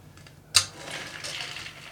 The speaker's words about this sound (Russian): А, бутылка открылась а, ровно. Ну и разливаем.